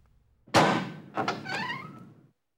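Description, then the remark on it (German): A door thunks as it unlatches when someone opens it to a visitor, followed by a short, rising creak as it swings open. Fairly loud, with no voices. “Da ist jemand an der Tür. Walton öffnet.”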